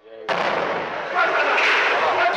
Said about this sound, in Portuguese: Passaram-se mais horas de negociações e tentativas de conversas quando, no final da tarde de sexta-feira, foi anunciado que a polícia explodiu a porta do apartamento após ter ouvido um disparo. Uma primeira explosão